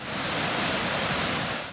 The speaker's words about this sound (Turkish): Kaz Dağları'nda kış kuraklığı nedeniyle kuruma noktasına gelen dereler ve şelaleler bahar yağışlarıyla tekrar akmaya başladı.